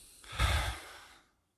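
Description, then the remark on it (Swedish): A single deep, breathy exhale, a slow whooshing sigh that swells quickly and then trails off over about a second, with no talking: a person breathing out after a deep breath in during a breathing exercise, lowering raised hands. “Upp med händerna. Andas in djupt. Och sen så bara andas ut och släpper ner händerna.”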